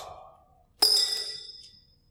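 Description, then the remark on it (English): A rock drops into a glass jar holding many rocks, maybe 150, with one sharp clink, followed by a bright ringing tone that fades over about a second. A soft murmur comes just before it. “Now, there's a lot of rocks in here. Maybe 150 rocks.”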